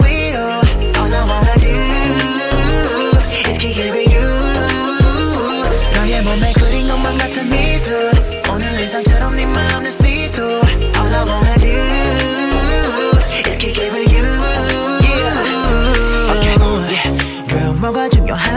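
A loud pop song with rap vocals riding a punchy, steady beat and deep bass, playing continuously through the whole stretch.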